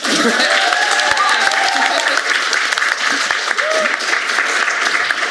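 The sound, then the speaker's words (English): An audience claps steadily for several seconds to thank a panel of creatives, a dense, sustained wash of applause holding at an even, fairly loud level throughout, with a few faint voices and cheers mixed in. “This is where you applaud them, please.”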